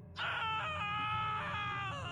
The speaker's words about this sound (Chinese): 此时，卡雷突然隐约听到了一个男人沉闷而凄厉的惨叫声。